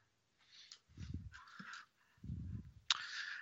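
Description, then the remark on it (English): A dog named Kiwi barks repeatedly in several short, uneven bursts, sounding somewhat muffled, with no one talking. “who are you barking at, Kiwi?”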